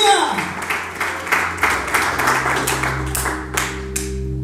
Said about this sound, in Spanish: ¿Cuántos saben que nuestro rey es vencedor? ¿Cuántos dicen amén en esta tarde? Pueden aplaudir fuerte a nuestro rey que venció la muerte. Aleluya.